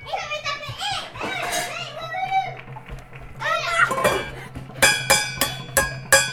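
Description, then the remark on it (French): Young children chatter and squeal, then five or six loud, evenly spaced metallic clangs ring out as two children at a window strike a saucepan with toy dishes at 8 pm in the first arrondissement of Lyon, France. “Ils prennent tous les deux une casserole et euh, des trucs de dinette et ils vont à la fenêtre.”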